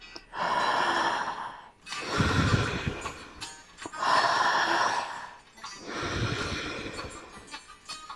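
Slow, deliberate breathing: two full cycles of airy inhales through the mouth alternating with rougher, lower exhales through the nose, each lasting over a second, with no talking.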